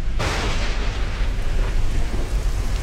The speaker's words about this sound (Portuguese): Aí, ó. Tá chovendo. Agora eu vou ter que fechar a janela e ligar o ar.